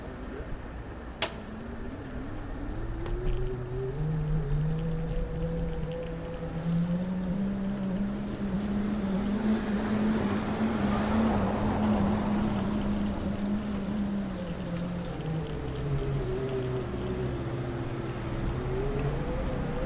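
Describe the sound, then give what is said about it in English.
A prototype dynamo-powered singing bicycle ridden along a long straight road, its dynamo connected by crocodile clips to a speaker cable; a steady humming tone slowly rising and falling in pitch with speed over a continuous rush of rolling road and wind noise, fairly loud. “a singing bicycle prototype”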